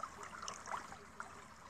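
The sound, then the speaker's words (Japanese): A steady, gentle babble of flowing stream water fills the background, continuous and fairly soft, with a few brief brighter splashes or chirps rising above the rush. “これちょっとあれですねせせらぎ音が大きいかもしれないちょっと話しましょうね。”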